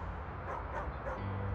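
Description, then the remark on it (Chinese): Dogs barking and yipping outside in a city over a steady low hum, with overlapping bursts of bright, mid-pitched barks spread across the short clip. “外面的狗不停的用它们的叫声吞噬着这个城市。”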